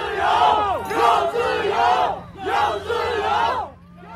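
protest crowd shouting

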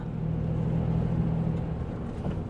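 bus driving

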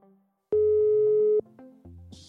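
telephone ringing tone

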